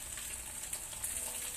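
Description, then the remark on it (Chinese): Several chicken cutlets pan-frying, a steady bright sizzle with crackly pops rising and falling throughout, fairly quiet and with no talking. “那今天呢，因为呢我们旁边呢还有一群观众等着要吃，所以呢我们今天呢就煎了好几片，所以时间就稍微花久一点点，可是也还好。”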